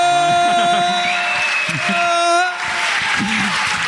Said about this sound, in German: ich bin gestern 41 geworden. Ich bin, da schon mal. Ein kleiner Applaus!